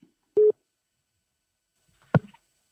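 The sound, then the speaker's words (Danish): A single short, steady telephone tone sounds once over a quiet line, followed after a pause by a sharp click like a call being picked up, as a news reporter phones a Social Democratic district chairman in Ringkøbing, Denmark. No one speaks. “vores reporter, der ringer rundt til til landets kredsformænd.”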